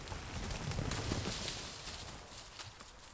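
A horse carrying a rider walks through snow in the Jura, its hooves thudding and crunching softly in an irregular walking rhythm over a steady hiss of outdoor noise with no voices.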